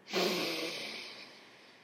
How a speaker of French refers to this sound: Je prends une grande respiration avec toi et je t'invite à faire euh, pareil. Faisons ça ensemble.